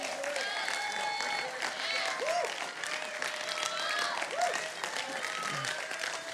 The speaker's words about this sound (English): Church, can we just give a shout of praise to him right now? Can we choose a posture of praise?